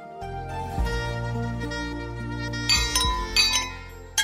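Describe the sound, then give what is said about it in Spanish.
Glasses clink together in a toast, a few bright, ringing chimes near the end over a low sustained musical tone, with no one speaking. “hay brindis? Bueno, ya sabe lo que significa ese brindis, ¿verdad?”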